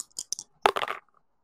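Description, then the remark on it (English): Dice are rolled for a roll plus charm and come up a four: a few sharp clicks, then a dense burst of tumbling knocks that quickly settles into faint ticks and silence. “So, go ahead and roll plus charm.”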